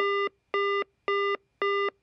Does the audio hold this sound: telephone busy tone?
yes